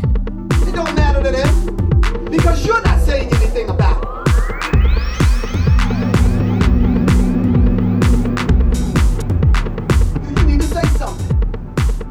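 An electronic dance track with a steady, punchy kick drum, deep pulsing bass, crisp hi-hats and a rising synth sweep that builds through the middle, played loud and continuous with no voices.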